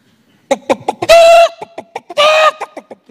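A run of short, choppy clucks with two longer, drawn-out squawking cackles, loud, sounding like a chicken or a voice imitating one, with no talking over it.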